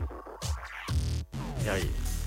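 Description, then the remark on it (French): A 56K dial-up modem dials and handshakes, filling the moment with warbling tones and harsh bursts of hissing static, loud, shifting rapidly over a couple of seconds. “Le son du modem 56K. Là, ça numérote.”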